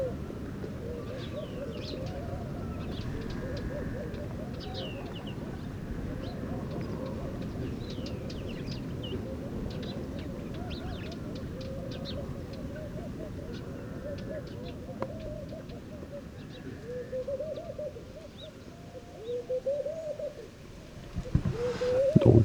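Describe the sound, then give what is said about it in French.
A turtle dove coos repeatedly in soft, low phrases at a palm oasis in the Mauritanian desert, over a steady outdoor ambience, with faint chirps and small sounds scattered throughout and a few louder knocks near the end. “voilà pour la signature sonore euh, des oasis dans le désert mauritanien, parce que cette tourterelle est vraiment présente partout dès qu'il y a des, paliers.”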